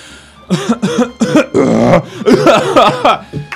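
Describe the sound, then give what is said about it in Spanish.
A voice imitates a powerful burp masked by forced coughs: several short, loud, throaty bursts in quick succession, followed by a longer strained, gurgling stretch. “Y de repente a mi amigo se le ocurrió la genial idea de intentar disimular un eructo poderoso con toses.”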